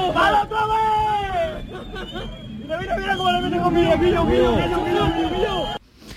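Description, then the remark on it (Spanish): A crowd at a harbour yells and shouts over one another, cheering on the crew of a fast drug-smuggling speedboat circling a smaller Civil Guard boat; a loud continuous hubbub of raised voices with an open, outdoor feel and a low rumble of engines beneath. “En esos momentos ya se oyen gritos desde el puerto alentando a los pilotos de la narcolancha”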